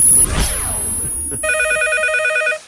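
After a short burst of rustling noise, a telephone rings with a bright, buzzy electronic trill that holds steadily for about a second and then cuts off.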